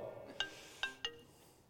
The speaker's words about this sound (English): Sorry about that. My phone's ringing. From one of my school teachers.